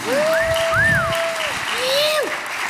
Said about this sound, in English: So uh, Henry Pollard, which is uh, played by Adam Scott. You! yes, cheer each time.